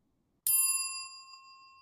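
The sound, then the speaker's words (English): A single bright notification bell ding sound effect rings out alone, striking sharply and then ringing with a clear, shimmering tone that slowly fades over about a second and a half. “If you haven't already, please make sure to like, subscribe, and click the notification bell.”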